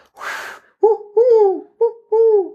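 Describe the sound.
A breathy rush of air, then four hollow, tonal owl hoots blown through cupped hands in a short-long, short-long pattern, fairly loud with no talking.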